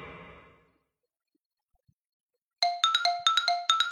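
A phone alarm clock rings, waking the sleeper from a dream, in bright, repeating electronic tone patterns, starting abruptly after a brief murmur and near-silence, each rapid burst of stepped high beeps cycling loudly about every half second.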